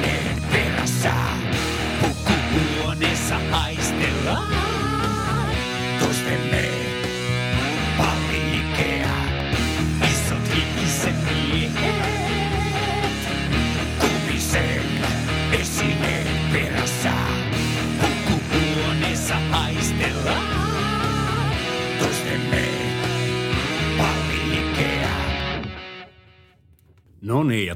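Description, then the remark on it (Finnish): Organ-driven heavy metal plays loud and dense, with distorted sustained chords and a steady driving pulse, running continuously before cutting out abruptly near the end and briefly returning. “Tuo urkkahevi kerta kaikkiaan Siis se lamautti hm. kaikki elintoiminnot.”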